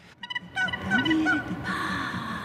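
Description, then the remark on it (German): A single woman's voice, recorded following graphic scores and played in an art exhibition at the Haus der Kunst, makes wordless experimental sounds: a quick burst of warbling, gobble-like pulses, then sliding whoops and a breathy hiss, fairly loud. “Alles, was wir hören, hat … aufgenommen mit ihrer Stimme.”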